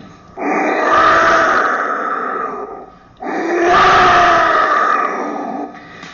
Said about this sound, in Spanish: De hecho, aquí me traje algunos, por ejemplo, estos silbatos de prehispánicos. A ver, que suene, que suene.